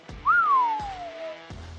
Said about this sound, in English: We just got a whistle from Shaun King going this